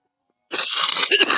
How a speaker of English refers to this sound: Ooh, what the hell is that? My cough?